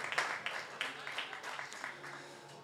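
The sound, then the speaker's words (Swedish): A brief round of applause from a small quiz audience as the correct answer is shown on the screen, scattered claps overlapping in a light, uneven patter that stays fairly soft throughout, with no voices standing out. “Ja, ta en liten applåd.”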